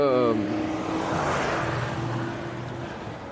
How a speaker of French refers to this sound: Alors j'espère que vous l'avez pas entendu, il y a un mec, euh, une bagnole, hein, un, un, un veau, une vieille Volvo là, et puis le mec il monte la, cote en première. Putain mais euh, enfin voilà, il pue l'essence, ça pue le gasoil